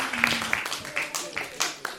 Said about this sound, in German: Ein Applaus, bitteschön, für die Dame da hinten.